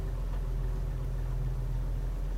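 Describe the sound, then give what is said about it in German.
A car engine idles quietly and steadily, heard from inside the car at night, nearly four o'clock. A low continuous rumble with a faint hum, unchanging, with no talking. “Ich sitze im Auto. Der Motor läuft leise.”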